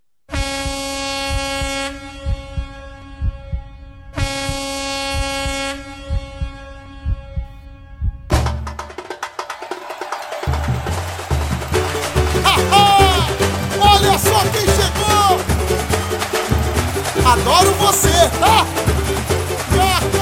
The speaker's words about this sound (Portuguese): Logo depois da vinheta. Solta a vinheta aí pra gente.